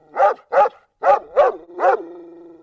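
A dog barks five times in quick, uneven succession, loud and sharp, the last bark trailing into a brief whining tone. No one speaks.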